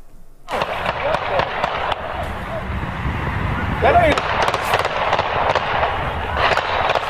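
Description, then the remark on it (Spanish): A long, rapid volley of nearly two dozen gunshots cracks out in quick succession at night during a youth baseball game at a high school in Chicago, over a noisy, chaotic background where voices can be heard amid the commotion. “Bueno, al suelo se lanzan jugadores de béisbol cuando casi dos docenas de disparos los sorprenden en pleno partido juvenil.”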